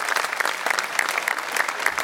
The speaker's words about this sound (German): Ja, er war einer der Ersten. Gibt einen Applaus.